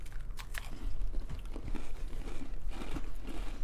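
Several people bite together on a count of three into crunchy lemon sandwich cookies, followed by steady chewing, a crisp crackling texture that continues for a few seconds with no one speaking.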